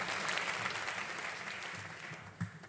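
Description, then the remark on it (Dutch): Sustained applause from a live audience for comedian Peter Heerschop, recorded in 2013: a dense crackle of many hands clapping at steady loudness that slowly thins out toward the end, with one brief louder clap near the finish. “Luister, hier is echt publiek.”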